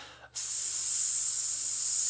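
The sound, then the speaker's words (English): After a brief quiet moment, a voice lets out a long, steady hissing "sss" exhale, a vocal-lesson breath-control exercise done after breathing in all the air. It starts abruptly and holds at an even, fairly loud level to the end. “and you breathe out on an S and see how long you can have breath control and for.”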